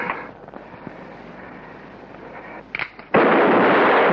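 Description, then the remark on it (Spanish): A single loud gunshot cracks out near the end as Liberty fires again, hitting Ramson in the right forearm. It bursts suddenly over a low, noisy background and leaves a sustained roar ringing afterward. A few faint clicks come just before it. “Liberty se pone serio y vuelve a disparar.”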